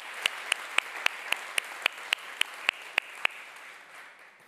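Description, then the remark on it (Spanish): Audience applause with a steady run of sharp, evenly spaced claps standing out over a softer wash of crowd clapping, all of it fading away near the end. “Un aplauso.”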